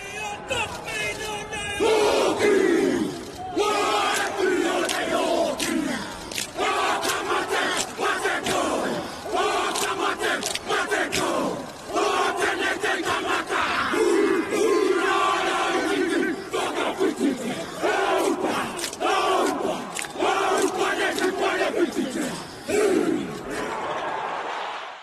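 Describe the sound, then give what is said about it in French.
The New Zealand rugby team chants the Ka Mate haka war dance in unison before a match, loud rhythmic shouted bellows with sharp stamps and cries, backed by a roaring stadium crowd throughout. “Même celles et ceux qui ne s'intéressent pas au rugby ont un jour ou l'autre maté le kamaté guerrier des Néo-Zélandais.”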